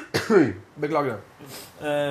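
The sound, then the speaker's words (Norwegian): A short, rough cough bursts out at the start. A man then speaks briefly in a calm voice, ending with a drawn-out hesitation sound. “uansett hostinga”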